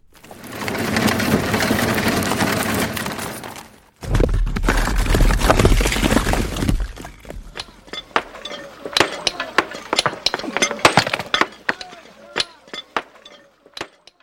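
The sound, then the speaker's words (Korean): Stonework at the construction site of Gyeongdeokgung palace, laying foundation stones and installing steps: a dense, grinding rumble of heavy stones being moved gives way to sharp, irregular hammer-on-stone clinks and taps, moderately loud. “자, 부지를 마련했으면 건물의 기초가 되는 주춧돌을 놓고 계단을 설치하는 공사를 해야겠지요.”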